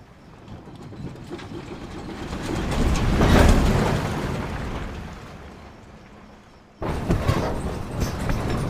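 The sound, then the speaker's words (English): Sound effects of the interior back of a truck rattle and rumble, the clatter swelling tensely to a loud peak before easing off, then cutting abruptly into another dense stretch of shaking, metallic rattle. No voices. “And then we have all these little elements of rattle that maybe not necessarily tied to a specific thing, but has it evokes a certain emotion, like you get tense, rising rattle that kind of happens.”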